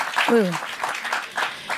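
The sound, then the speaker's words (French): An audience answers a performer's question by applause instead of voices, clapping steadily in a dense, crackling burst, with a voice calling out briefly over the noise near the start. “Attendez, on va faire par applaudissement parce qu'on n'entend pas assez.”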